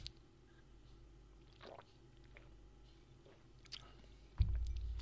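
Quiet sipping and swallowing by a football commentator whose voice is giving out, with small wet mouth clicks and gulps spread across a few seconds, ending in a louder low thump. No one speaks.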